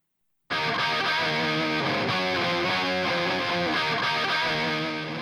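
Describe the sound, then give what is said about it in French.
After a brief silence, a heavy metal song by an Italian band kicks in abruptly with a loud, dense distorted guitar riff, churning steadily and driving without pause, with no talking over it. “on va écouter le morceau … par le groupe …, qui est un groupe qui est signé chez Dying Victim Productions”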